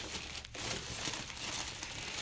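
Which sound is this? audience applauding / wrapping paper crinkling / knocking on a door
wrapping paper crinkling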